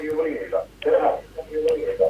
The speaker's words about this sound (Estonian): jaa, aga palun pange raadiot vaiksemaks, muidu me kuuleme ainult … siit tagasi. nii, halloo, halloo ei, ei, me kuuleme ainult … kahjuks, et iga kord, kui te helistate, siis astuge raadiost eemale, et siis on parem kuulata.